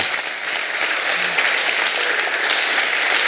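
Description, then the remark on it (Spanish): Steady applause from a crowd for visiting members from San Vicente who travelled about two hours to attend, a dense wash of many hands clapping at an even level throughout, with no one speaking over it. “damos un aplauso a los hermanos de San Vicente.”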